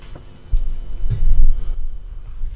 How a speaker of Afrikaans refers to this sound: Ons skuif mikrofone as jy snaaks gelykie hoor.